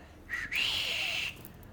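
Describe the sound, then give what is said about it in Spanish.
A person imitates a father's classic whistle call: a short low note, then a long, bright, steady whistle that holds for almost a second before cutting off. Fairly loud, with no talking. “y ya lo que hacía era salirme toda la tarde a vagar y no regresaba a la casa sino hasta que mi papá llegaba y echaba su clásico silbido.”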